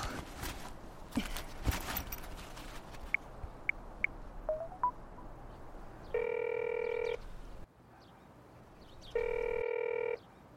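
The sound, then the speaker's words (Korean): A phone being dialed at night, after 10 p.m., with a few soft taps and short beeps, followed by two loud, steady electronic ringing tones separated by a pause. No one speaks. “전화 걸게요.”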